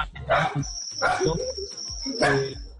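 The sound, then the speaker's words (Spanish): A dog barks three times in separate bursts about a second apart, loud, while a thin, steady high-pitched tone runs in the background. The dog is barking during a quarantine. “bueno, acá está ladrando el perro, obviamente en cuarentena ladra el perro,”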